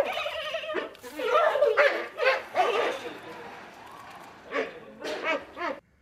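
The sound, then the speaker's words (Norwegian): A dog whines and yelps at first, then lets out a quick series of three or four sharp barks near the end, moderately loud. “Jeg mangla bjeffinga på slutten.”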